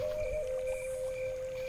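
A stream flows steadily, with a continuous, even wash of water noise and a constant humming tone layered on top. There is no talking.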